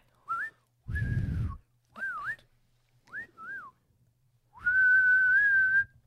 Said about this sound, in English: Uh, do you think they would whistle for Shadowfax that way? Like, you think Gandalf ever got to the point where he was just like, you know what I mean?